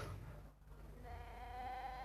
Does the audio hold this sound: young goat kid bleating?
yes